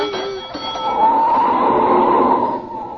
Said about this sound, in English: Mr. Conklin, there's a streetcar.